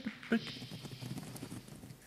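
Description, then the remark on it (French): A rapid, continuous patter of many small scurrying feet of rats approaching, steady for the whole stretch, with a short high squeak near the start. “Tu entends oh. Des rats. C'est pour nous qu'ils viennent.”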